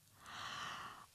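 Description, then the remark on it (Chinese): A person voices one long, breathy yawn for the cat waking up in the picture-book story 'Miss Cat's Big Belly', a soft airy exhale that swells and holds for about a second before fading, with no talking around it. “一天早上，海底醒来，它打了个大大的哈欠，挠了挠耳朵，”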